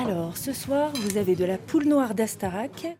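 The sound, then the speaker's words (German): Cutlery clinks against plates in a busy restaurant in an observatory town where water boils at 90 degrees, as a regional menu is served; a few sharp metallic taps scattered under steady voices and murmured conversation. “geht es zu Margot ins Restaurant”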